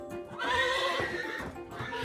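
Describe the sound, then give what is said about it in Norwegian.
A horse whinnies loudly in a long, wavering neigh, with a steady clip-clop of hooves underneath. No voices are heard. “Hester derimot er mye større dyr, som betyr at de fikk laget mye mer serum.”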